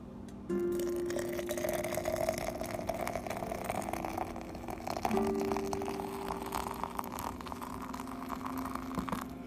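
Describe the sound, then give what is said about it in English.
Nescafe coffee is poured steadily into a thermos to take along, a continuous hollow stream whose pitch slowly rises as the flask fills, with a brief shift midway and no voices. “As I'm pouring it into my thermos to go and my coffee cup.”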